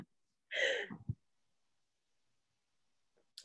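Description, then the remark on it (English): A single dog snore about three feet from the speaker's feet, a brief raspy snorting breath that drops off into a low rumble, then quiet; the dog is sleeping with its eyes slightly open. “like three feet from where my feet are right now, snoring like he was last week um, and kind of in a creepy way, sleeping with his eyes open just enough that he's staring at me”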